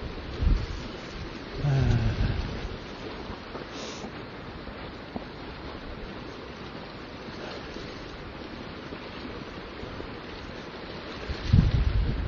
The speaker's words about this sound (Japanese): これ水の波の音がこれ入ってますかね結構これ風が強いので、池なんですが、海のように波立ってます。もう一定方向に、これ北から南に向けて、波が結構立ってますね。